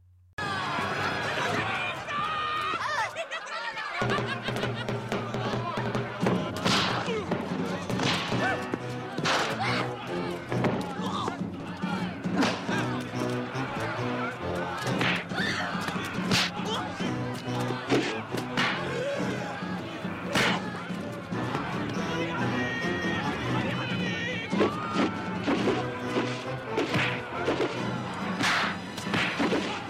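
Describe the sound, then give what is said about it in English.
A loud, nonstop barrage of fight-scene sound effects from the film Gymkata: swooshing whooshes mixed with sharp smacks, thuds and crashes, arriving in rapid, irregular bursts over a busy, crowd-like background. “Not about the fear of nuclear war at the height of the Cold War, or about the westernization of the Eastern world, but about whoosh, and a whole lot of whoosh, whoosh, as evidenced by this beautifully written scene.”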